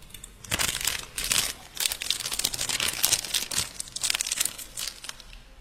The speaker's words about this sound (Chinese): 微博晒晒我的奶酥，好一会儿了，塑料袋已经搓的不行了。